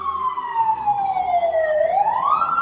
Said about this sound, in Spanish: Va, es una ambulancia.